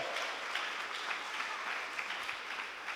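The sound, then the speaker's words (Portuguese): An audience applauds the Lord together, a dense, steady wash of many hands clapping at once with small swells, loud and continuous for the full three seconds, with no voices standing out. “Dê um brado de vitória, aplauda o Senhor aqui, adore.”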